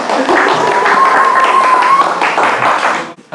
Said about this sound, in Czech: tak prosím, po krátký potlesk.